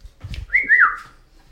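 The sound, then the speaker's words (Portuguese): A cockatiel whistles one bright, sliding phrase that rises and then dips. It lasts about half a second and is fairly loud, after a few soft low thumps. “é uma delícia essa calops.”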